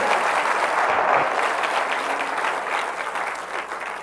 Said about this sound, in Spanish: Con ese aplauso yo no me siento muy bienvenido. Dele un buen aplauso.